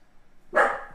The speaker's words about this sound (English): the dog will continue to bark at the. Uh, it's just barking at the food now.